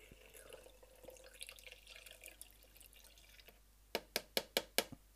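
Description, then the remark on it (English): Stabilizer solution pours steadily into a film developing tank with a soft, splashy trickle for a few seconds, followed by a quick run of five sharp, evenly spaced clicks. “Pour it in.”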